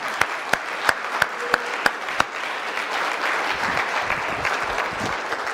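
An audience breaks into applause, starting with a few sharp, evenly spaced claps that quickly swell into a steady, dense wash of clapping sustained throughout.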